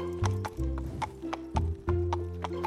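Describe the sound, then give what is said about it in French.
Steady clip-clop of the hooves of Bruni, a black horse, at a moderate trotting rhythm, with a low sustained tone underneath and a brief snort or whinny-like sound mixed in. “Bruni, le beau cheval noir, déposa Monsieur Lutin au bout d'un petit chemin de ronces.”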